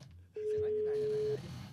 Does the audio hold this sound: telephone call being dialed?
yes